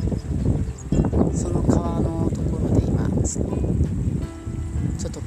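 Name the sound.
river water flowing outdoors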